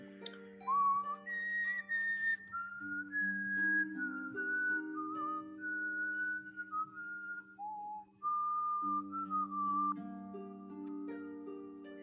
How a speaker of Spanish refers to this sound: Escuchas ¿Cómo este silbido se mantiene.